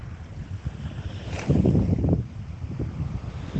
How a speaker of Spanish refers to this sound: Escucha el ruido de las olas.